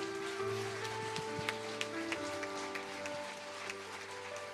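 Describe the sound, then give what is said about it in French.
A crowd applauds steadily for people who completed a theology training course and received a certificate, a dense wash of clapping that holds an even level for several seconds, with a low steady hum underneath and no voices. “voilà ça c'est un certificat c'est un papier qui montre que voilà ils ont suivi ce parcours jusqu'au bout qui se sont accrochés et on peut les applaudir”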